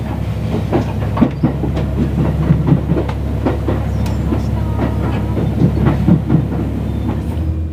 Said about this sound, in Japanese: それでは HC85 系の特急飛騨の旅出発します